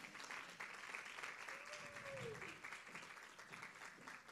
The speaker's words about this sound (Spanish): vamos a recibirla con un aplauso, por favor.